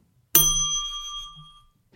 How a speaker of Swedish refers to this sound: är det dags för klockan? Just det. Du, du behöver en klocka nu.